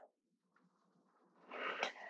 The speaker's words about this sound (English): Yes, yawning is perfect.